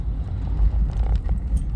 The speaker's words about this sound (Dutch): Oh, dankjewel, vrachtwagen.